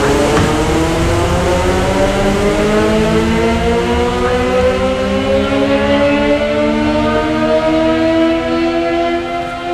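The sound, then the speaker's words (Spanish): A fire brigade's midday siren in Cochrane holds a loud, steady wail for the whole stretch, its rich tone gradually climbing in pitch, with no voices present. “Algo que en, en, eh, en provincia está marcado por la sirena de los bomberos.”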